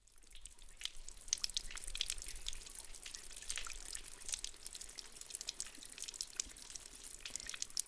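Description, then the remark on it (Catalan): Water splashes steadily from a fountain's spouts, three grimacing fired-clay mask faces at a country estate, a continuous bright spattering and dripping, with no voices. “A la dreta veiem un salt d'aigua procedent de tres carasses de fang cuit eh, carasses, ja sabeu, uh, que fan aquestes ganyotes un poc inquietants.”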